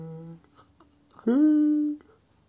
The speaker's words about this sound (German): Und, gähnen.